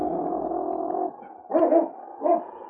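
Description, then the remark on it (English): A dog growls low and steadily for about a second, then lets out two short, gruff barks, with no one talking. “See that dog following us?”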